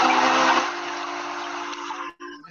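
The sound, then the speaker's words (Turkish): A steady, airy wash of calm meditative music played for a breathing exercise, with a soft hissing texture over a low sustained drone that holds evenly and then briefly drops out near the end. No voices. “küçük bir meditatif müzik açıp sadece 5 dakika bir nefes egzersizi bile yapabiliyorsak”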